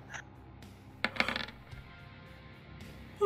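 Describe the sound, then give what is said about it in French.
Three dice are rerolled, clattering briefly across a hard tabletop in a quick burst of small rattling hits, fairly clear, with no one speaking. “Je vais passer un point de willpower pour relancer.”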